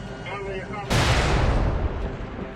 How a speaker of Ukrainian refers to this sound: Є ракета Земля Небо випущена буком, розбиває вертоліт до того, як він встигає відкрити вогонь по наших штурмовиках.